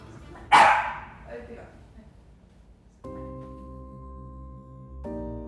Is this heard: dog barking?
yes